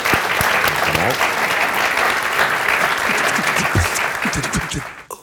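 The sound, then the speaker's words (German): At the end of a talk, an audience claps steadily in a dense, loud wash of applause that holds for about five seconds before tapering off at the end. “Herzlichen Dank und ich denke einen großen Applaus.”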